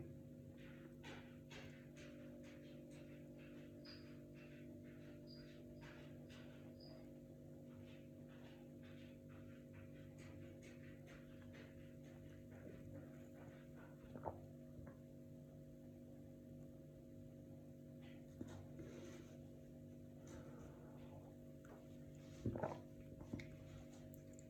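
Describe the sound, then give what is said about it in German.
Mia the cat scratches in her litter box in the living room, heard from the kitchen, faint irregular scrapes and rustles over a steady electrical hum, with a few louder scratches near the end. “Das ist kein typisches Geräusch. Das ist Mia, die auf Klo ist.”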